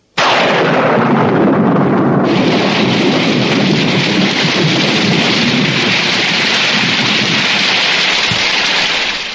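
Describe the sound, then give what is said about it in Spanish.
A sudden downpour of heavy rain starts abruptly and roars steadily and loudly, with deep rumbling thunder mixed in. No voices are heard. “Podría llover.”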